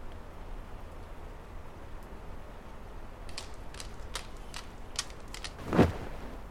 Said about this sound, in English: I'll um, I'll sit with you and keep you company until the storm stops.